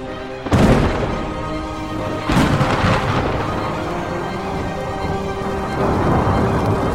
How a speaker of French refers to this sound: Le tonnerre accompagne les tempêtes venant du sud-ouest.